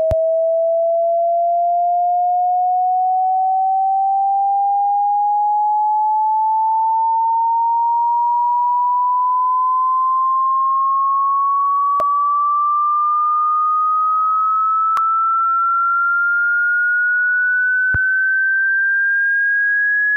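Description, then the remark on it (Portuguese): A single pure sine tone sounds alone and gradually glides upward in pitch over about twenty seconds as its frequency is raised to a very high frequency, steady and fairly loud, with a few faint clicks near the end. “Ok, agora vamos deixar ele bem agudo para o nosso ouvinte perceber, tá? com, com uma altíssima frequência.”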